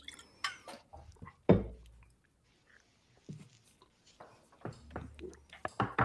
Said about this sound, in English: First of all, Moose hit us with a drip. By the way, drip drop.